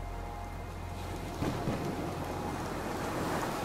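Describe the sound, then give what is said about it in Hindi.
Steady drizzling rain hisses during the monsoon month of Sawan while a low, rolling rumble of thunder swells after the first moment and lingers beneath the downpour. No voices are present. “सावन का महीना था रिमझिम वर्षा हो रही थी ठंडी हवा बह रही थी काले काले मेघ आकाश में छा रहे थे बीच बीच में गंभीर गर्जन हो रहा था”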